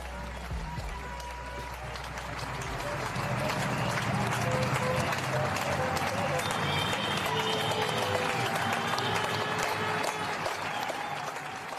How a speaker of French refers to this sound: On se retrouve demain et on se quitte comme chaque soir désormais avec vos applaudissements au personnel soignant, ils en ont bien besoin.